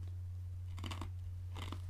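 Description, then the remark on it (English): Two short bursts of crisp, crackling crunching as ice cubes are bitten and chewed, separated by a brief pause over a steady low hum. “As you chew ice.”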